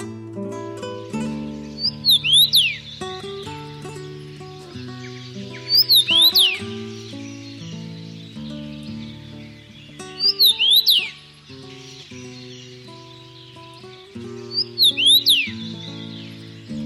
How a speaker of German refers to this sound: Das war der Kamingimpel.